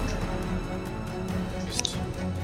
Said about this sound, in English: This time, you're going to hear a squelching sound.